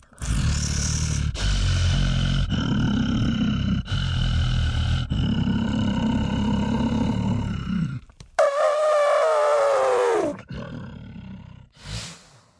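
Elephants roar loudly in several long, rough bursts, then one lets out a high, brassy trumpet that slides downward, followed by a brief fainter call at the end.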